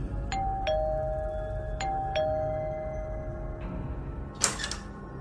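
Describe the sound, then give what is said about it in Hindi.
A house doorbell rings out a ding-dong twice, two bright chimed tones each time, over a low steady hum, followed by a brief rattle like a door latch opening. “कितना टाइम लगाता है तू दरवाजा खोलने में”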